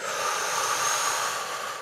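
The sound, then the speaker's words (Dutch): A long, steady inhale drawn in through the nose as a breathing demonstration, an airy hiss lasting about two seconds with no voices around it. “en dan kan je hem proberen te downreguleren dan door bijvoorbeeld, eh, is het moeilijk om door je neus te ademen, dat je eerst”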